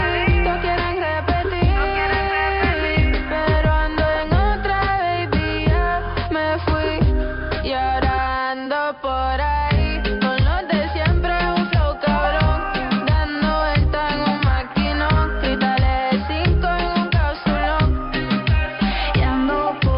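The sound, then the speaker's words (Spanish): A pop song plays steadily and loudly with a driving bass beat and layered melodic instruments, sounding slightly muffled and band-limited as if coming over a radio, with no talking. “Mientras suena toda la música que más te gusta acá en los 40 espaciales, …, el maquinón”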